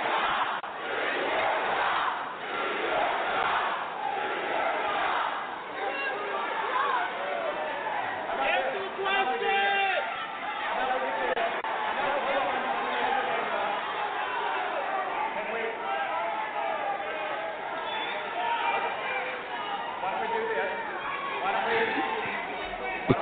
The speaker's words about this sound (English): Do your job is what they're chanting.